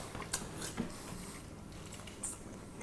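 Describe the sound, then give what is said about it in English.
Quiet chewing: a few irregular wet clicks and smacks of people's mouths working on steak, spaced unevenly over a low background hum, with no talking. “Now, if you're the kind of person listening who doesn't like chewing sounds, I apologize in advance because the rest of this podcast it's gonna be us chewing.”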